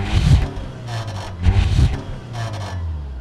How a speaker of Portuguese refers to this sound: É só ouvir aqui este escape do Menino dos Olhos do João, à venda por 12.500 euros.